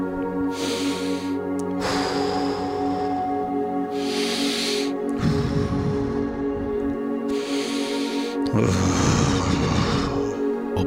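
Slow, deep breaths drawn in through the nose and let out gently through the mouth in several unhurried cycles, clearly audible over a steady, humming musical drone.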